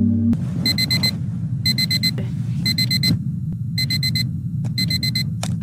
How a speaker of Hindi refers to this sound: पाँच बजे का अलार्म जैसे बंद करते ही कबीर की नींद खुल गई